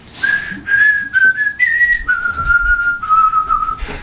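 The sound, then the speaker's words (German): A steady, fairly loud whistled call from several small, hovering, very flat creatures flying down from the treetops, holding one clear tone for several seconds, stepping slightly down in pitch a few times before ending, with no talking. “Als relativ bald das Geräusch beantwortet wird und man mehrere kleine, schwebende, also sehr flache Kreaturen von den Baumwipfeln runterfliegen sieht und sie pfeifen dir zurück.”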